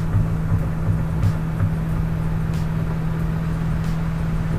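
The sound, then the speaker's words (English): A heavy log truck carrying big, long pine logs rumbles along the street, its deep, steady engine drone and road noise holding at a constant level throughout, with no voices. “And ironically, there goes a log truck down the street.”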